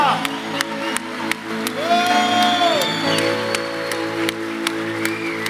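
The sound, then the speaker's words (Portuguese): A church audience applauds and cheers for the Lord after a prayer, over sustained keyboard music, with sharp claps and a rising whoop or shout standing out from the crowd noise. “Aplauda o Senhor, igreja.”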